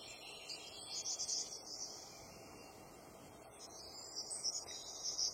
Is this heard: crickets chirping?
yes